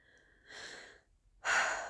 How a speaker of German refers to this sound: Ich kann dabei noch ein paar Atemübungen machen, tief in den Bauch atmen